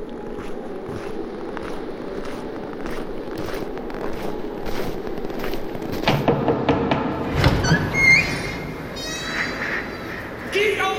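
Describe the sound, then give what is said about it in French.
A door of a chalet is pushed open on a very cold day, creaking midway through, a drawn-out groaning strain over a low, steady background hum, followed by a few thin, higher-pitched squeaks as it swings. “Pardon, mais il fait hyper froid dehors et puis j'ai vu de la lumière alors j'ai poussé la porte.”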